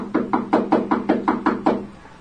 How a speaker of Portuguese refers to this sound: Jânio batia à porta do quarto de pensão que Homero ocupava.